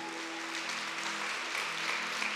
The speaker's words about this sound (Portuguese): Fique em pé e aplauda o Senhor.